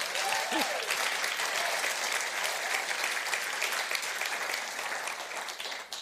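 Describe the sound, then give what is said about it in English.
A crowd claps for the worship band for about six seconds, a dense, even wash of applause that holds its level throughout and only starts to thin slightly at the very end. “Uh, can we give our worship band one more clap here?”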